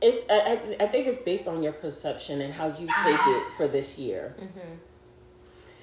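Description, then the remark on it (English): A male dog barks and yips repeatedly in the background, somewhat muffled, while a person keeps talking over it; the barking fades near the end, leaving a faint hum. “So, um, if you guys hear some noise in the background, my my my dog is going completely insane right now, and I have no idea why.”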